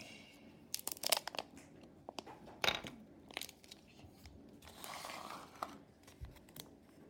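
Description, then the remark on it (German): Foil crinkling and tearing, with sharp crackling bursts and a longer rustling stretch as the foil wrapper of a chocolate surprise egg is pulled open; no voices. “Okay, ich mache mein letztes Ei auf.”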